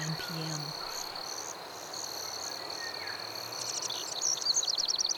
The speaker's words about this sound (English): We're coming up on the longest day of the year in Vermont. The birds start singing at around 4 a.m. and they don't quit until the night insects take over well after 9